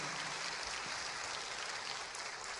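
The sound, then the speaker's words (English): A crowd claps steadily in a dense, continuous round of applause for two visiting guests, even in loudness, with no voices standing out. “Give them a round of applause.”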